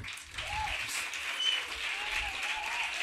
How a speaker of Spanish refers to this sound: pues vamos a ver cuál es el talante del público de esta tarde-noche en el modo aplauso. Vamos a ver cómo de visceral, de enérgico, de, de punzante es el aplauso del público de La Palma de hoy.